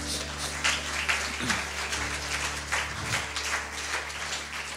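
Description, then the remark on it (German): Steady applause from a crowd for those who prayed for the first time, a dense wash of many hands clapping at moderate volume throughout, with a low hum underneath and a few faint voices. “Komm, lasst uns doch mal denjenigen, die hier oder zu Hause das zum ersten Mal heute gebetet haben, einfach einen Applaus geben”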